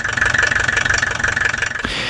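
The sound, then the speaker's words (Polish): A combustion engine runs with a steady, rapid chugging rhythm and a harsh mechanical whine on top, loud and continuous, shifting to a smoother hiss right at the end. “A 372 lata później niemiecki konstruktor Rudolf Diesel opatentował silnik spalinowy.”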